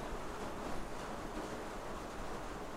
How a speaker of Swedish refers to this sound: Det regnar ju ute. Och det regnar inte lite heller.